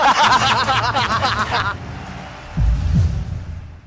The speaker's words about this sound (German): Ja, draußen vor der Geschäftsstelle des BVB staut sich der Verkehr wie üblich auf der B1.